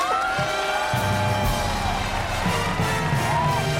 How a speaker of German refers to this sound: Um Gottes Willen. Entschuldige mich für diesen Schrei.